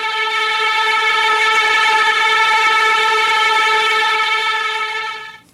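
A passing train, a sound effect mixed into a song, sounds a loud, sustained horn blast, one steady tone held for about five seconds before it quickly cuts away. No voices are heard.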